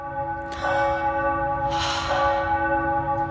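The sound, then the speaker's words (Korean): Church bells of Myeongdong Cathedral ring during the Christmas season with rich, sustained overlapping tones, struck again partway through so the sound swells, with a soft wash of outdoor ambience and no speech. “종소리가 너무 느낌이다.”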